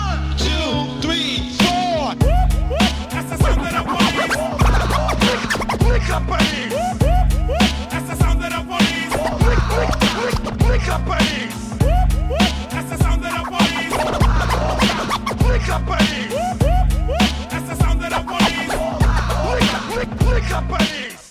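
A loud hip-hop track, a 1995 remix made for the film La Haine, with a steady heavy bass beat, overlaid with frequent sharp DJ turntable scratches cutting in and out throughout, dense and continuous.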